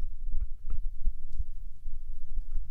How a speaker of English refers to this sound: It's also picked up the helicopter. That's the that's the, the rotors of the helicopter, the Mars helicopter.